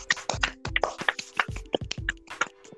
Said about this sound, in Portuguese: Quero palmas. Pena que não tem efeito de palma, então eu vou bater palma.